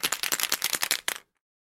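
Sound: rolling a die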